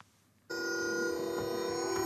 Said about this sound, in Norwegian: Dette er lyden av sjakk. På Teknisk museum i Oslo sitter en far og en sønn over et tilsynelatende vanlig spillbrett men de sitter svøpt i elektronisk lyd som endrer seg når de flytter brikkene.